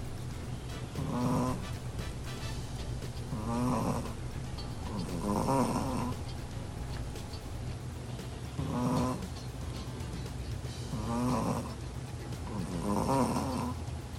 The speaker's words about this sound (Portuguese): Esse áudio é um ronquinho do Ralph, um cachorrinho charmoso que acorda a sua tutora quase toda noite com esse barulho